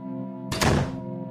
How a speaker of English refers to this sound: They got home and she slammed the door.